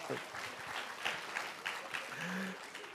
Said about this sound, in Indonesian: Beri tepuk tangan dulu buat Tuhan.